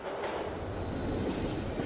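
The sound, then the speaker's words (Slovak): A train starting to move after passengers board rumbles steadily with a broad, continuous roar of rolling rail noise and a faint high whine, moderately loud, with no voices. “Láďa aj krásna dvojica nasadnú a vlak sa pohne.”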